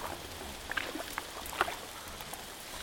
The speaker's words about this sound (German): Dann begann es zu regnen. Erst nur ein bisschen. Dann immer heftiger und ein Ende war nicht abzusehen.